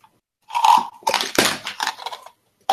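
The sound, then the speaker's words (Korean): Chocolate being bitten and chewed, a run of crisp, irregular crunching bursts lasting under two seconds, then a short pause and one more crunch. No one talks. “초콜릿 소리인가 본데?”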